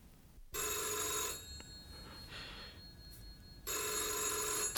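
A telephone bell rings loudly in two bursts, each just under a second long, separated by a quieter pause with faint background noise.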